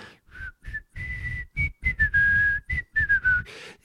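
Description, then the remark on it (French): A man whistles a short song tune in the next aisle of a supermarket, a run of clear notes that slide slightly in pitch, some clipped and a few held longer, over a faint low rumble. “tu vois, et un type qui siffle à côté dans l'autre rayon.”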